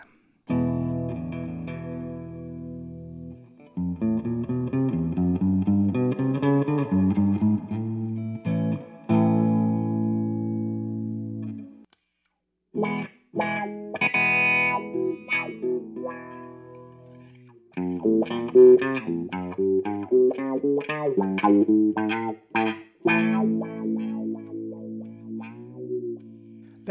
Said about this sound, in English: was a comparison between a clean guitar sound and the wah wah sound of Dunlop's Crybaby pedal. By rocking the wah wah's treadle back and forth, sound sweeps up and down the frequency spectrum of an instrument.